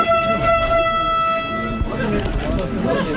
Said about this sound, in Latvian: Skan signāls, un jaunais elektroviļņciens pusotru gadu pēc tam, kad to atveda uz Latviju, šodien pilns ar pasažieriem no Rīgas dodas uz dubultiem.